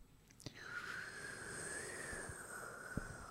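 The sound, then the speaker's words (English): A voice imitates tumbleweed wind noise, a breathy, steady, mid-pitched whoosh that rises after a short click and holds for about three seconds at a fairly quiet level. “would you like to do the tumbleweed noise?”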